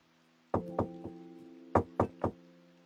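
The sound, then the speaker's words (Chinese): Someone knocks on a door in two sets of three firm raps, with a short pause between the sets. A steady low tonal hum runs underneath, and no one speaks. “嗯，这会儿是谁来敲门呢？”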